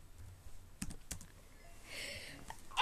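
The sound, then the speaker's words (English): A few scattered computer keyboard clicks as people type in a chat, with a soft rustling burst midway and a louder clatter of keys at the end. No one speaks. “now everybody's typing in the chat.”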